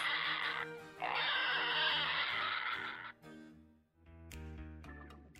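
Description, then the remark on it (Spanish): A male breeding pig squeals loudly and harshly for about three seconds, then breaks into shorter, choppy grunts and snorts, with no talking. “Y berraco, un cerdo macho reproductor, viene del latín berres, con el mismo significado”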